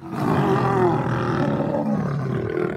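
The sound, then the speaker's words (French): Several lionesses roar and growl together to signal their presence, a loud, sustained chorus of deep overlapping voices rumbling continuously without pause for nearly three seconds. “Elles signalent leur présence en grognant et en rugissant, souvent à plusieurs.”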